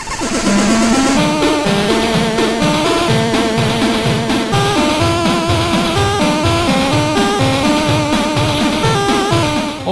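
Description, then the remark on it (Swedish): Loud, busy retro chiptune music from a side-scrolling Commodore 64 shoot 'em up game, with a bright buzzy lead melody over a bouncing bassline, playing steadily throughout with no voices. “Det låter så här på Commodore.”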